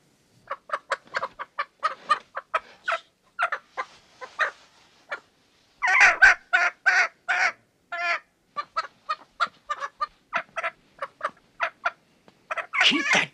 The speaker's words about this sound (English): damn chicken quiet!